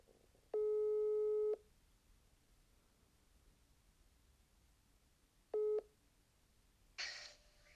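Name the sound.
telephone line tone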